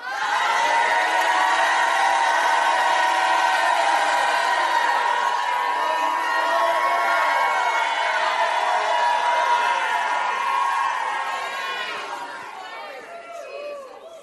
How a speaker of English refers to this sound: Lift your hands and shout like you never shouted in your life.